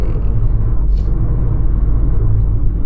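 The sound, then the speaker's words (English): A steady, loud low rumble of road noise from inside a car driving to work in heavy Friday traffic in California after a week of rain, constant throughout, with a brief hiss partway through like another vehicle's air brake. “driving to work right now and there's this really bad accident”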